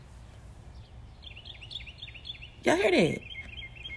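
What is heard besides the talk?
birds chirping outdoors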